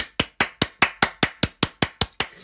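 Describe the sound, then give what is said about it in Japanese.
A single person claps steadily, about eleven sharp, bright claps at an even, quick rhythm, each one a crisp snap that decays quickly. No voices are heard. “いや、すごいよ拍手”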